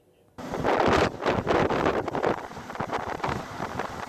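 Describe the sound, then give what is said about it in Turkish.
Strong, gusty wind roars loudly into the microphone after a brief quiet start, buffeting steadily like a snowstorm blizzard, with no clear voices; a snowstorm with heavy snowfall that closed roads in Çaldıran district of Van, in the east of the country. “Van'ın Çaldıran ilçesinde sağlık personeli yolu kapanan mahallede mahsur kalan bir aylık bebeğin pansumanını yapabilmek için 6 saat kar ve tipiyle mücadele etti.”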